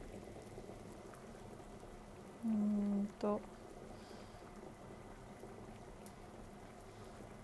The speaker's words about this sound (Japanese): 鶏肉がの火の通りがいまいちですねなんかもう野菜はクタクタしてきてるんだけどどうしようもういいかなで今日もイヤホンで撮ってますグツグツ音聞こえるかな